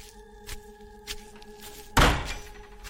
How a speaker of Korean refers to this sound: 비닐하우스 뒷문이 열려 있었고 바람이 덜컹덜컹거리고 있는데 그 모습이 어찌나 오금을 저리게 만드는지요.